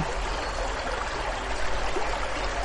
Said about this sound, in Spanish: sonido de agua